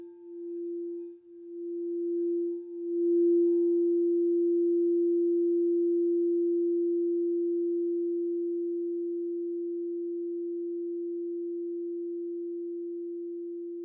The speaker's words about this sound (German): Die Meditation beginnt und endet mit dem Klang einer Kristallklangschale, die auf das Herzchakra gestimmt ist.